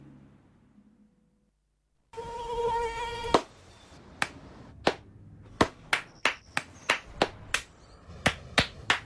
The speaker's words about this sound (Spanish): No aplaudamos al mosquito, combatámoslo en serio.